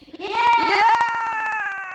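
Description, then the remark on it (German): The Live-Radio WM Fanjubler, a World Cup fan cheering gadget, gives off one buzzy, bleating cheer that rises then holds a steady pitch, pulsing rapidly throughout. It is loud, lasts about two seconds, and has no talking over it. “So, einmal jubeln bitte.”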